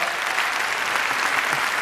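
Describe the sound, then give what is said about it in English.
A crowd applauds steadily, many hands clapping together in a dense, continuous wash of sound that stays at an even, moderate loudness throughout with no voices standing out. “if if, if you don't mind, and you could hold your applause till later, I don't want to run out of time because I want to show you a lot of cool stuff.”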